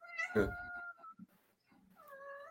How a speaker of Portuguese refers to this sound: Ué, pera... Opa, tem um miau aí. Tem, tem.